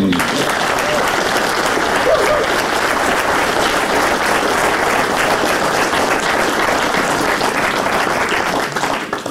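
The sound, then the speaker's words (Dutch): Steady, sustained applause from an audience fills the whole stretch, a dense wash of many hands clapping at an even loudness without letting up, given for the film Titanic on its 25th anniversary. “Klein applausje voor de film Titanic.”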